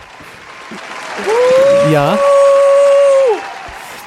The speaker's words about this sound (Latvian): Vēl tad tu tur var arī aplausus mākslīgos uzlikt.